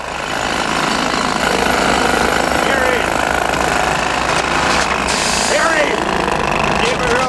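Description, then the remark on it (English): About 25 people operate jackhammers at once at a work site, pounding in a loud, continuous, dense clatter, their overlapping rapid hammering filling the whole stretch with a harsh mechanical roar and occasional higher squeals. “So now he he he goes to work, and there's more jackhammers than I've ever seen in one place.”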